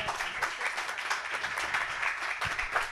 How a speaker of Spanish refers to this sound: Súper valioso, un aplauso para la...